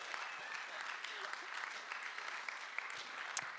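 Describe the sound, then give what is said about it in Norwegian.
An audience at a baptism service on the fourth Sunday of Advent applauds the people being baptised as they arrive, a dense, steady wash of many hands clapping that holds at an even level for the whole few seconds, with a few sharper individual claps standing out. “jeg syns vi skal gi dem en applaus!”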